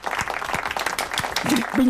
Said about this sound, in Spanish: Te vamos, a, te vamos a dar un aplauso porque lo has hecho muy bien.